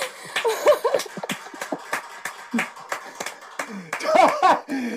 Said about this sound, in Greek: Χειροκράτα. Ε, ε, να ακουστεί θέλω το χειροκρότημα από όλους.